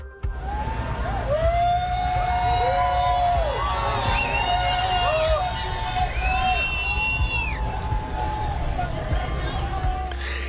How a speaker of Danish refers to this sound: En lang række af tunge sorte SUV'er med tonede ruder ruller ind i downtown Miami. De er kombineret af motorcykelbetjente i begge sider af vejen. Efterhånden som bilerne de kommer frem, så opstår der en hulen fra fortorvet.